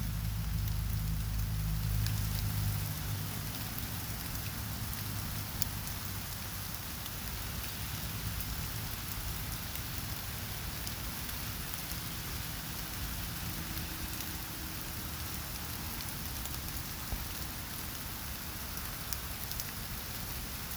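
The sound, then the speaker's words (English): Steady rain patters on a surface, a dense, even hiss of countless drops with a low rumbling undertone, continuous for the whole stretch, with no voices. “Can you hear the raindrops?”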